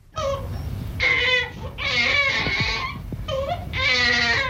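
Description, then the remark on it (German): A baby cries in a series of loud wails, each breaking off briefly before the next bawl starts, with a thin, strained edge to the voice. “Ist auch das Schreien keine Sünde, so hat es doch spezielle Gründe.”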